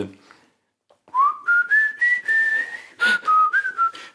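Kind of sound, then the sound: vocal imitation, imitated whistling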